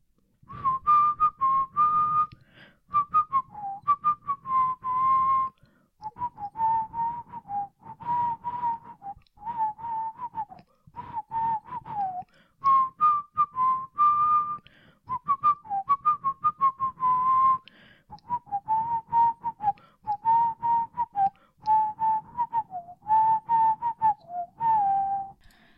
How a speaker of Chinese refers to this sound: OK，我已经尽力了，因为我今天我觉得又有点卡痰，所以很难吹口哨，都会一直卡卡卡卡住。